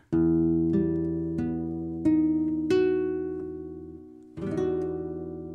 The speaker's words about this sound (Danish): Jeg, jeg har sat fingrene på min, min akustiske guitar. Prøv lige at høre det her.